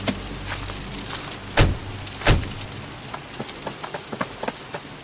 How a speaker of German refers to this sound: In der Hoffnung, dass wenigstens ihre Gewitterwolken sich wieder verziehen würden, stiegen wir aus dem Auto und rannten das kurze Stück bis zur Eingangstür durch den Regen.